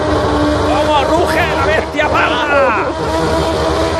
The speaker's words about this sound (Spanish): qué bueno te salió este coche, impecable de moto. Mira, mira cómo suena, mira cómo suena, mira, mira